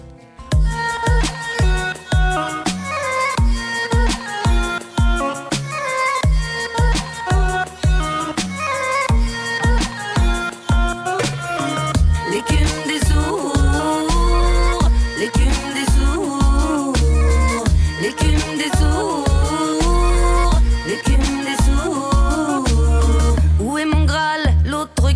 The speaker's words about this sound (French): On écoute cette chanson Voilà. On y va. Vous écoutez bien en ce moment … sur Jet 91.2.